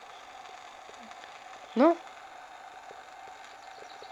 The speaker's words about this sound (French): Mais tu sais, quand on passe en kayak après euh, près la roche du diable, au-dessus, il y a des câbles électriques, qui font du bruit.